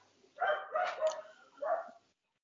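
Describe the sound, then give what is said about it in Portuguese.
Dogs bark in three quick, fairly loud bursts over about two seconds, the middle one longest and slightly drawn out, with no one talking. “Soltaram a cachorrada hoje aí”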